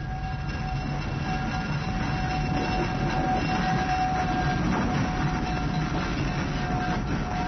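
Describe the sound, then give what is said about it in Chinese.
A coal-powered steam train from Kushiro station in Japan rumbles along steadily through snow, a dense low roar with faint rhythmic clatter, while thin, steady high-pitched tones ring above it throughout. No one speaks. “我们现在呢，就到川路火车站，带您去搭乘蒸汽火车。”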